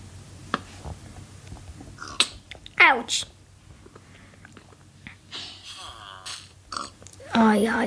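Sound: pig grunting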